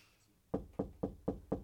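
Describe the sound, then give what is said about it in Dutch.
Five quick, evenly spaced knocks on a wooden door, firm, with a dull resonant thud to each rap and no voices. “U hoeft hier nooit te kloppen.”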